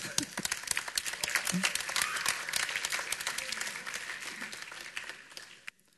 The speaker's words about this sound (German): Dann legt er einen Sack Kartoffeln in die Schubkarre und wieder gelingt die Überquerung. Tosender Applaus.